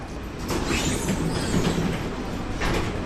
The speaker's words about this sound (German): Wir nehmen eine der historischen Straßenbahnen aus den 1930er Jahren. Viele dieser nostalgischen Gefährte sind heute noch im Einsatz und haben längst Kultstatus erreicht.